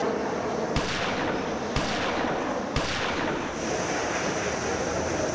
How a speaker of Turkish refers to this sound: Luna Park'ın orta yerinde silahlar patladı.